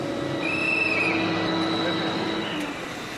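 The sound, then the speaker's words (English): A passenger train in Hungary, running from a village on the outskirts of the capital toward downtown, rolls steadily along the rails, a continuous rumble with thin metallic wheel squeals whining over it throughout. “It would take about two hours just to get downtown by car on weekdays mm, during the rush hours so the train is much better for me.”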